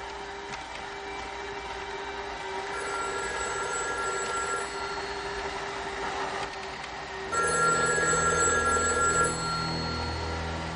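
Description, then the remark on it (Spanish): A hair dryer's steady whirring drone fills the first seven seconds in a hotel room bathroom, then a hotel room telephone starts ringing loudly, its bright electronic trill continuing to the end. No one speaks. “En la habitación del hotel, Angie se su pelo en el baño cuando suena el teléfono.”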